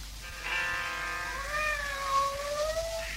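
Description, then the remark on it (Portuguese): Cats meow in long, drawn-out, wavering cries that slide up and down in pitch, overlapping into a continuous yowl lasting a few seconds, clear with no talking. “Então são gatos.”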